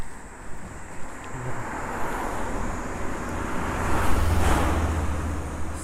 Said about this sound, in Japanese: すごいギリギリのところを走っていくな滑っていくよ車が